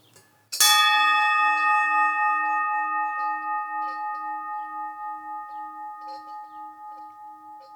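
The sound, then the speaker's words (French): A single cow bell is struck once and left to ring, its bright metallic tone humming with a slow wavering pulse as it gradually fades. Clear, with no voices. “Là, c'est pareil, quand on achète des cloches, on apprend à les connaître.”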